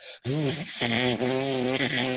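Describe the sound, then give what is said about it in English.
A person buzzes their lips like a brass player, a loud, reedy drone lasting about two seconds, with the pitch sliding up and down in short phrases before briefly dipping and resuming. “and I used to see him walking down the street uh, back in the day, but he'd just be buzzing his mouth this all the time.”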